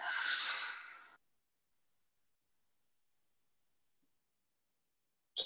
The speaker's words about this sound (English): So, keeping your eyes closed, let's take a big breath in through the nose and a big breath out through the mouth.